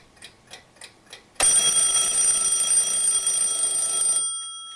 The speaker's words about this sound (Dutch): Op vrijdag 2 januari 1942 gaat om half zes de wekker bij Titus Brandsma.